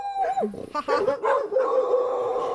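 Several dogs bark and yelp excitedly, their high, wavering cries overlapping in a loud, continuous burst with a whiny, howling edge.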